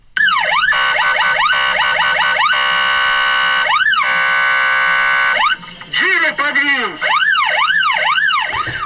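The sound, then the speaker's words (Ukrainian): A loud ambulance siren cycles through rapid yelping sweeps and slower rising-and-falling wails, shifting patterns partway through, sounding continuously for several seconds as the ambulance, with sound and light signals on, rushes a child with pneumonia to hospital. “На видео бригада, двигаясь включенными звуковыми и световыми сигналами, осуществляет экстренную госпитализацию ребенка с пневмонией.”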